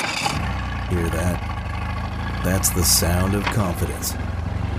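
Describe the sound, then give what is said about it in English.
A boat engine rumbles steadily at idle, a low continuous drone running the whole time, while a man speaks briefly over it. “For over 30 years, boaters and fishermen have counted on Nationwide to fire up their engines, to keep their electronics going, week after week, year after year.”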